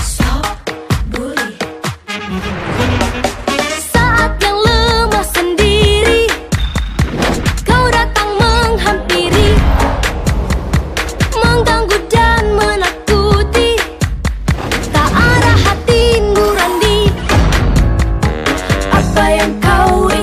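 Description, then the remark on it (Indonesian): A song played for student listeners plays at full volume, with a melodic voice singing over a steady beat and sustained instrumental backing that carries on without pause. “Eits, tapi aku punya lagu keren nih buat sobat pelajar. Yuk kita dengerin.”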